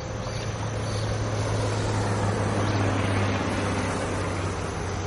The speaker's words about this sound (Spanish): Un camión cruza el puente.